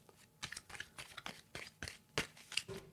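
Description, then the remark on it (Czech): A deck of playing cards being shuffled for a card trick, with a quick series of papery riffles and flicks in an uneven rhythm. The sound is fairly quiet and there is no talking. “Teď já zamíchám ty karty.”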